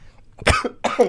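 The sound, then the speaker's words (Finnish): Two harsh, forceful coughs in quick succession, the second trailing into a strained, throaty rasp, from someone who got some water down the wrong way. “Meni vähän vettä tonne väärään, väärään lokeroon.”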